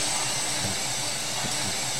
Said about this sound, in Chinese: 好，我们刚才有努力的要放瀑布的声音给各位听，但是不知道有没有成功了哈。